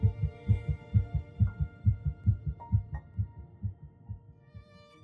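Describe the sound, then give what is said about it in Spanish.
A rapid, steady heartbeat of an embryo about 22 days after fertilization thumps in low, muffled pulses, about two or three beats per second, and gradually fades toward the end. A faint hum sits underneath, with no talking. “Sus células se organizan y forman lo que llamamos un embrión a las tres semanas y un día, solo 22 días después de la fecundación, se puede detectar el latido de su corazón.”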